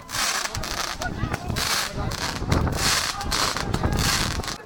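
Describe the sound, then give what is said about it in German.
Fireworks crackle and hiss continuously, a dense, rough burst of sparkling noise with rapid pops throughout, swelling in several loud waves without any pause. “Deswegen gibt's statt Tränen lieber ein bisschen Feldfeuerwerk”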